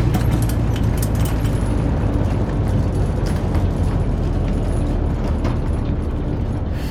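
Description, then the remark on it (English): A loud, steady low rumble of a plane landing bumpily in a field, with rattling jolts and clatter scattered throughout. No voices. “Why is it so bumpy? be landing in a field.”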